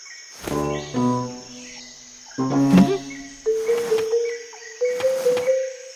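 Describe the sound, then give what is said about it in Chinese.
Bees buzzing outdoors in the wild in several droning bursts, low humming tones that swell and fade, with a thin, steady high insect whine running underneath throughout. “嗯，哦，蜜蜂走了。”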